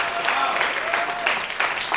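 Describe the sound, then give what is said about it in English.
A church audience claps for Jesus steadily for a couple of seconds, a dense, continuous patter of many hands, with a faint voice sustaining a tone underneath. “Clap for Jesus.”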